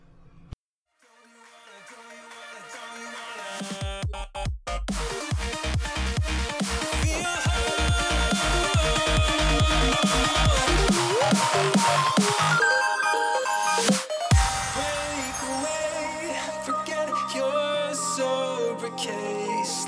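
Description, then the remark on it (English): An electronic music track provided by No Copyright Sounds, played as outro music, with a thumping bass beat and bright layered synths, starting after a brief silence and staying loud and full throughout, with no voices. “Both the intro and outro are uh, from the same song.”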